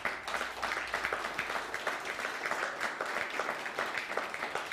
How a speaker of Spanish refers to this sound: Un nuevo aplauso nuevamente, por favor.